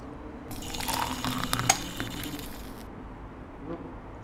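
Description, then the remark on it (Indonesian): Coffee being made: a steady liquid hiss of pouring or stirring for about two seconds, punctuated by a few sharp spoon clinks against glass, then fading to quiet room tone. No one speaks. “Tapi aku ingin membuat kopi sebentar ya.”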